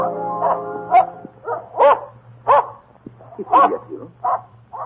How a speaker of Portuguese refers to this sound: Não havia, porém, o barato andado bem quilômetros quando seu fiel cão se pôs a ladrar furiosamente.